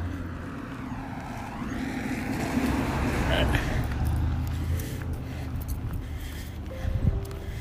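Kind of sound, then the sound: vehicle, truck driving past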